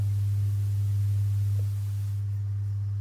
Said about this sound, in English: what's that buzzing sound in here? I don't know what that buzzing sound is.